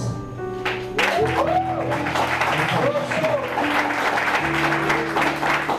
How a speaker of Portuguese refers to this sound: E eu quero dar um, bem, um aplauso também